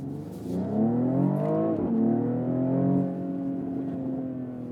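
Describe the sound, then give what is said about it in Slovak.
A car engine revs loudly, its droning tone climbing and dipping over several seconds, with a brief crackling burst from the exhaust partway through. No one speaks. “Strieľa to do výfuku, má to zvuk úplne masakrálny.”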